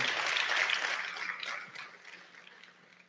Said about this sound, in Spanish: Dale un fuerte aplauso al Señor.